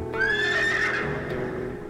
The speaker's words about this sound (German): wirft den Kopf zurück und wiehert kurz auf, wie um seinen Reiter zu ermutigen.